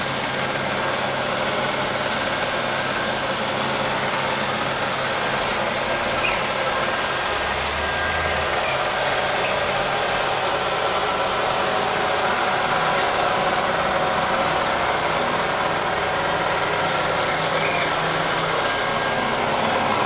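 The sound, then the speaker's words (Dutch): A steady motorized whirring and humming runs throughout at constant volume from a Neato Botvac D5 robot vacuum cleaner as it cleans, like a small motor and fan working, with no voices. “Neato botvac d5: een robotstofzuiger”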